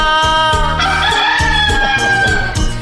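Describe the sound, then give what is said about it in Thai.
A long, drawn-out rooster crow rings out loudly over a steady, thumping musical beat, its harmonic call sustained for a couple of seconds with a slight rising and falling pitch. “นี่น้องไก่หรือเปล่าเนี่ยโอ้ไก่ขันเนี่ยไก่ขันทำไมขัน”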